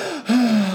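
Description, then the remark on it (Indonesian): A single loud gasping inhale with a voiced, slightly groaning edge, drawn in sharply and held briefly, with no other sounds around it. “Dia nengok ke langit langsung, tarik nafas panjang”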